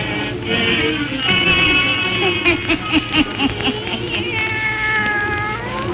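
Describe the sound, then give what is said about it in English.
A black cat, Satan, meows and yowls in long, drawn-out wails, loud, with a few shorter pulsing cries in the middle and no one speaking. “let us join old Nancy and Satan, her wise black cat.”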